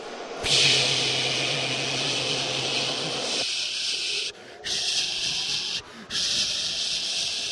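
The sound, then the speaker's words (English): A voice imitates the hot air blowers of a car wash drying a car: a loud, steady breathy whoosh that runs for several seconds, with a low droning hum under its first half and two brief breaks near the end. “And you're watching your car get shinier and shinier and wetter and and then all of a sudden it, it, gets through all that stuff and then it comes to those hot air blowers it's like a giant hair dryer”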